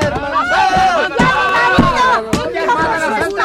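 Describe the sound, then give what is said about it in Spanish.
A chaotic brawl over a packsaddle, with troopers joining the fight and many voices shouting and yelling over one another, punctuated by sharp impacts, loud and dense throughout with no pause in the commotion. “¡No sea que se nos escape en el alboroto!”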